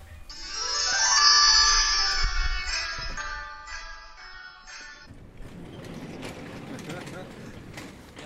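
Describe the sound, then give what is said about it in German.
A doorbell rings with a bright, sustained electronic chime that holds for several seconds, then cuts off, leaving muffled background noise and faint voices. “So, ich klingel hier mal.”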